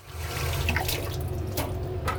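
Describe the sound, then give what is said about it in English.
Steady running tap water with a continuous hiss and low rumble, broken by brief splashy bursts as hands move under the stream, lasting a couple of seconds with no voices. “She washed her hands.”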